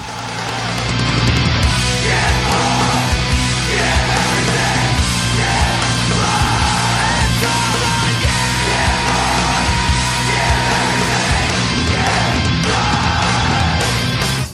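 A loud, dense stretch of heavy rock music, with distorted guitars and shouted vocals pounding at a steady, unbroken intensity for about fourteen seconds before cutting off abruptly.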